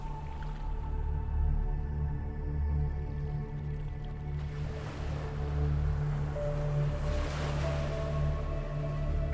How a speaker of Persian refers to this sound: بوی اقیانوس رو حس کنین صدای امواج رو بشنوین که به شنها میخوره دوباره و دوباره